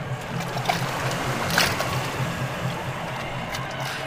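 Oars of a small boat being rowed toward the submarine Nautilus dip and splash through water in a steady, moderate rhythm over a continuous sloshing wash, with a couple of sharper splashes standing out. No one speaks.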